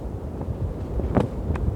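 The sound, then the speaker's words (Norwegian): Strong storm wind roars steadily at a field hospital in Bjerkvik, with a deep, rumbling low end, a few sharper gusts flaring up briefly near the end. No voices, just the continuous blustery noise. “Det er et forferdelig uvær.”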